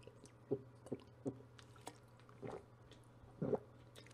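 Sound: drinking water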